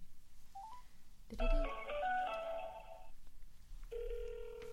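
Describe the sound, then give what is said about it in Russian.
A phone is dialed: a quick beep, then a dense burst of overlapping keypad tones, a brief pause, and a steady ringback tone begins. It is moderately loud, with no voices. “Все, звоню.”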